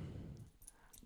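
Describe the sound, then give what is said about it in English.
A dog rustles close to the microphone as it bolts past it, a quick burst of muffled thumping and brushing, with faint metallic jingles flickering near the end. Nobody speaks. “Uh, that was if you heard that rustling, that was my dog.”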